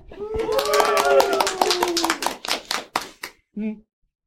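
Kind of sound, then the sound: crowd, audience applauding and cheering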